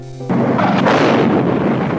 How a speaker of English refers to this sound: Oh my lord! There was a huge explosion.